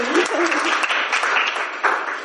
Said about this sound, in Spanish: Gracias por haber cooperado, un aplauso a todos, por dejarse.